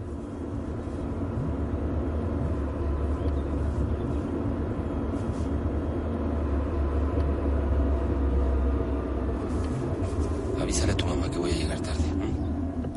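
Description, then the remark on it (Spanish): A car drives steadily in daytime with three people returning in it, its low engine and road rumble droning continuously from inside the cabin, with a few brief higher rattles and hisses toward the end. “Se ha hecho de día. Gerardo, Daniel y Alejandro vuelven en coche.”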